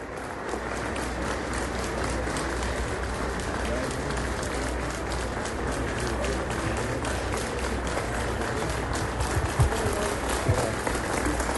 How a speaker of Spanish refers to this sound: En ese momento lo que escuchamos son los aplausos del momento en el que entra al recinto el presidente, el nuevo presidente Bernardo Arevalo, ya se encuentra sentado en la mesa central de este mm, teatro, el principal teatro de la ciudad de Guatemala